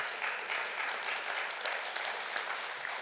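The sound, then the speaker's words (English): An audience at Crosslink Community Church claps steadily for its pastoral staff, the many overlapping hand claps blending into a dense, even wash of applause that holds at a constant moderate level without any voices. “Yes, go ahead and clap. Clap for all of them.”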